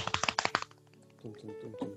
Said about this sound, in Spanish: Redoble de tambores.